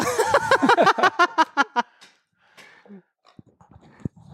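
A puppy wanting its toy pig back whines in a quick run of high, insistent yips for about two seconds, then goes quiet apart from soft snuffling and a few small thumps.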